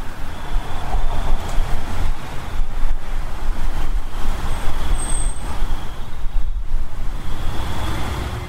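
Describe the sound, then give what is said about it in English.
Steady traffic noise on Otis Street, a residential road in Framingham, measuring around 60 decibels: a continuous low rumble and hiss of passing vehicles with a faint high whine running through it. No voices are heard. “On Otis Street, a residential road, the meter hovered around 60 decibels.”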